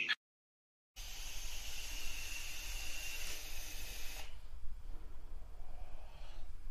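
A long, breathy exhale of vape vapor, a steady airy hiss lasting about three seconds after a brief silence, then fading into a faint, soft rush of air.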